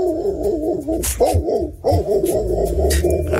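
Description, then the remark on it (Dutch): An old dog gives a run of hoarse, drawn-out barks and howling yowls, loud, with short breaks between them and no one talking. “Een hele oude hond.”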